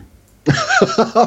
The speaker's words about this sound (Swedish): Prosit. Det är inte jag, det är min farsa i den här bredvid. Jävlar vilken nysning!